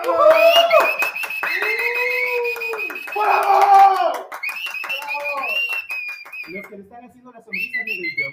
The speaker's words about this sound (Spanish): Así que les vamos a recibir con un fuerte aplauso a, directamente desde Maxilar Face,